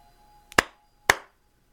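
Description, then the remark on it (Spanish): Two sharp, crisp hand claps about half a second apart, each with a short ringing decay, made by a three-year-old boy clapping twice from a hiding place during a game of hide-and-seek; no one speaks. “en el cual el niño corría a uno de sus escondites preferidos y aplaudía dos veces”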